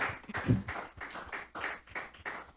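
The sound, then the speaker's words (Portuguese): An audience at a church service applauds the Lord steadily, a dense wash of overlapping claps at moderate volume with a few louder swells, and no voices rising above it. “Aplauda o Senhor, pode se assentar.”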